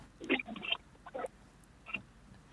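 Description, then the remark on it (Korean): Kayak paddle strokes dip and splash through water in three uneven, swishing bursts, soft, with brief quiet gaps between them and no talking, as the kayak is paddled away from an algal bloom. “지금 들으시는 소리는 카약 노젓는 소리입니다.”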